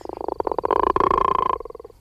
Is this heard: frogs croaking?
yes